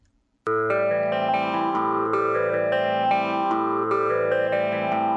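Music begins abruptly after a brief silence: a steady, sustained band-like sound with distorted, effect-laden guitar tones and repeating rhythmic accents, played at an even level with no voices.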